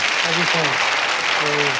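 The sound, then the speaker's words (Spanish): An audience claps steadily to welcome a guest, a dense, continuous wash of applause, with a couple of voices speaking briefly over it. “Lo vamos a recibir con un gran aplauso.”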